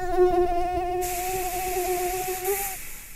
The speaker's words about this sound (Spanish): Triste mosquito.